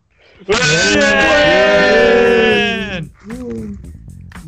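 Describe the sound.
Voices let out a loud, sustained shrieking wail lasting a couple of seconds, wavering in pitch, before dropping off into quieter talking.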